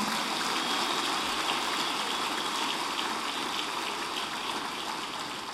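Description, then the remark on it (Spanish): A large audience applauds the Lord during a sermon in a dense, steady wash of clapping that holds at an even, fairly loud level for several seconds, with no voices rising above it. “Ahora darle un fuerte aplauso al Señor.”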